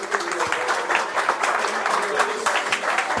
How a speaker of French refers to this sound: Merci beaucoup, en tout cas, messieurs. Merci, beaucoup euh, d'être restés avec moi. On peut vous applaudir.